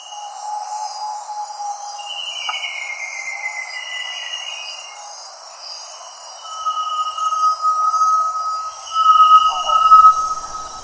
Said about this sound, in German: Mein Vogel der Woche, Great Tinamu oder Groß Tinamu oder Groß Tao. Und da es diesen Vogel hier nicht gibt, werde ich an unserem tropischen Sommer hier einfach immer so ein bisschen Tinamo-Töne in den Wald hineinbringen.